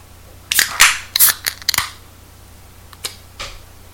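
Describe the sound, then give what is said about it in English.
A can of pilsner beer cracks open with a cluster of sharp metallic clicks and short bright fizzing bursts, then two fainter clicks follow after a pause. No one speaks. “Okay, let's pop this bad boy.”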